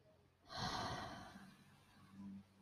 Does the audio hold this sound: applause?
no